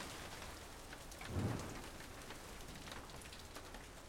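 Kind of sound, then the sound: nature, rain falling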